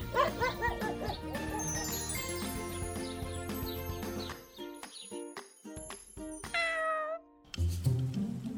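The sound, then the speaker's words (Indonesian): Three cats gathered in the garden of a house in the early evening meow over a tinkling, chiming music bed, their rising and falling cries repeating, with a high sliding meow standing out near the end. “tiga ekor kucing lucu bernama Mimi, Yaya, dan Uko sedang berkumpul di taman”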